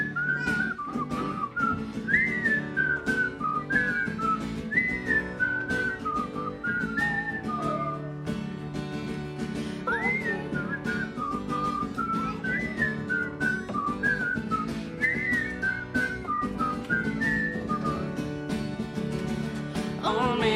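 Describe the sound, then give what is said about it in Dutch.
A clear, melodic whistled tune opens a song, rising and falling in short phrases over a steady musical backing with drums and instruments, loud, with no voices. “liedje dat begon met een stukje fluiten.”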